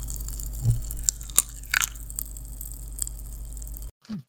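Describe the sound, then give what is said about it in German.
Biting and chewing of very sweet crunchy candy: several sharp cracks and crunches scattered over a few seconds, wet mouth sounds in between, against a low steady hum, ending abruptly. “Ich, ich hau mir das jetzt mal rein und mal gucken.”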